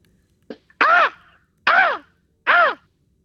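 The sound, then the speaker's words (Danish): A male red fox screams in mating season, three loud, hoarse, rising-and-falling cries spaced evenly apart after a short sharp yap, with no talking. “Og han, han går jo og skriger af, af kan man sige, øh, stor kærlighed til hunderne”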